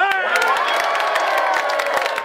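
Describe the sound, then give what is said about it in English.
A large crowd at a live site in Queensland, Australia, celebrates the news of Brisbane winning the Olympic and Paralympic Games, cheering and shouting continuously, with whoops and scattered clapping rising over a dense wash of voices, loud and sustained throughout. “Well, there was a party atmosphere at live sites in Queensland last night as crowds welcomed the news.”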